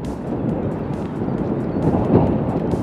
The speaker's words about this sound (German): Am Sonntag zieht ein kleiner Sturm über das Schalke-Gelände